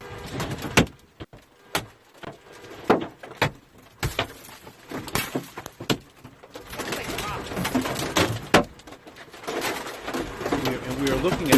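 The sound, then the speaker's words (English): Large hailstones pound a car roof, recorded inside the vehicle: loud, sharp cracks strike irregularly, scattered at first, then thickening into a dense, rattling barrage. The hail punched about eight holes in the windshield and left pock marks about an inch and a half deep in the roof. “video inside a car. The, the windshield is, has about eight holes in it, and the roof there's pock marks in the roof that are craters like an inch and a half deep.”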